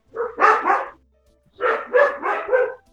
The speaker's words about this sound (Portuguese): Dá uma acalmada no Pumba aí. Bah, ele tá lá na frente. Caraca, meu Deus, parece que ele tá aqui na minha orelha, latindo. Aguente. Não dá pra controlar.